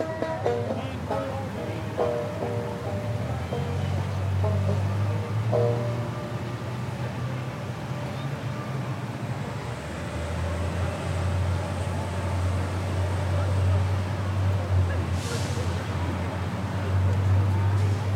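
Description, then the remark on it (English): A steady, unbroken rumble of road traffic fills the scene, deep and constant with a low engine drone and a faint airy hiss, no single vehicle standing out. “Well, mostly traffic noise.”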